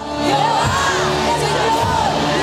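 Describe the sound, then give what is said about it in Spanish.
A large crowd shouts and cheers loudly all at once as a preacher urges them to shout, a sustained roar of overlapping voices with whoops and yells rising throughout. “En momentos de escasez en momentos de persecución, grítalo, en momentos de acusaciones, en momentos de crítica, Jehová el Señor me ayudará.”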